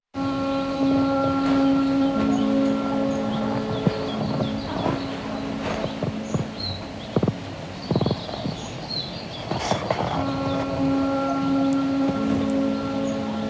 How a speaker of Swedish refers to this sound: Jag kan ju berätta lite om just det här spåret för att man hör liksom det här lite knarrljudet.